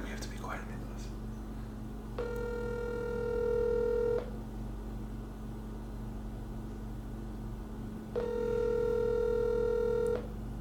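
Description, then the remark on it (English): After a few faint dialing sounds, a phone rings on the line twice: two steady buzzing tones about two seconds each, with a long gap between, over a low background hum. “she's dial. dialing, and it's ringing.”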